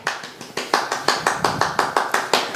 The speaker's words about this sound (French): Applaudissements de Minipod, tout le monde.